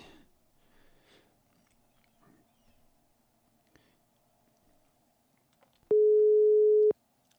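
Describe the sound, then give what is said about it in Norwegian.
A telephone ringback tone on an outgoing call to a man: one loud, steady one-second beep after several seconds of quiet line hiss with faint rustling, then silence again. “Ja, i hvert fall uh, ringetone, om ikke annet.”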